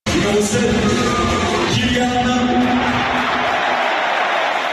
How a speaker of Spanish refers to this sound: con el recibimiento de la afición del PSG a sus jugadores mientras el speaker del estadio nombraba a los mismos. El único que se salvaba era Kylian Mbappé, que era aplaudido de esta manera.